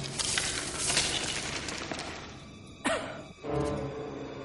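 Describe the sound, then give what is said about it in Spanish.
A man (Cypher) coughs twice, short muffled bursts, as dirt falls on him while he climbs down through the pipe shaft behind a bathroom wall, following a stretch of scraping, rustling noise with falling debris. “El agente oye la tos y apunta hacia la zona de la pared de donde proviene.”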